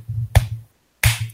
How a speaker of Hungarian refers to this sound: És amit most hallottatok, az is Self 5-nak a hangja volt, mert konkrétan telibe találtam a 60-nal Jeff Green playoff meccsének a számát.